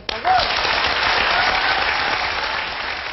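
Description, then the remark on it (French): A large audience bursts into loud, sustained applause welcoming chef Bernard Loiseau, the dense clapping filling the space steadily from start to finish, with a brief faint cheer near the beginning. “On va faire un triomphe à Monsieur Bernard Loiseau.”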